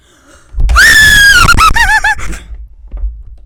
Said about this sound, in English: You want me to scream as loud as I can? Yeah.